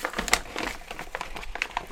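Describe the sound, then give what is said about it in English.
A packed-lunch paper bag crinkling and rustling as someone digs through it for a tiny white envelope at the bottom, a steady run of irregular crisp crackles and scrapes at moderate volume, with no talking. “Bag sounds.”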